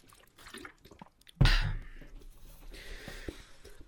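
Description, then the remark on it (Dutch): A sharp wet clink or gulp at the start of a sip of water, followed by soft slurping and swallowing noises with faint breathing, no talking. “Nogmaals, neem ik een slokje water.”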